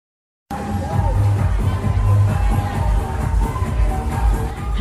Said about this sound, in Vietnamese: trên phố Tạ Hiện, quận Hoàn Kiếm, Hà Nội, ồn ào tấp nập bởi tiếng nhạc sập sình, tiếng chào mời khách từ các hàng quán đan vào nhau không ngớt.